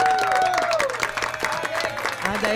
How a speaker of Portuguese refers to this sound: Uma salva de palmas